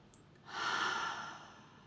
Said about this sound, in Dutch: En zorg ook dat jij je ademhaling in je bekken hebt. En als je dat niet hebt, Adem een paar keer diep in en uit.